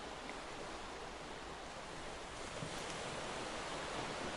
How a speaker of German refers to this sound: Möwen schreien in der Ferne und die Wellen rauschen sanft in deinen Ohren.